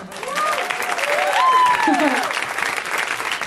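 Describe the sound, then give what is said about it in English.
An audience at a comedy show bursts into steady, loud applause for the host's parents that fills the whole stretch, with a few high whoops and cheers rising over the clapping near the start. “So if everyone could please uh, clap it up for my parents.”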